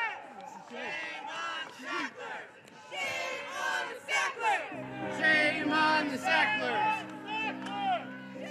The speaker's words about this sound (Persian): زمان موعود بالاخره فرا رسید و رأس ساعت همراهان بانو که همه یک آیتم قرمز رنگ به تن داشتن یا به دستشون بسته بودند شروع کردند به فریاد کشیدند.